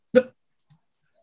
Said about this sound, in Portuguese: Peraí que eu vou ter que tossir só um instantinho, bem nessa hora.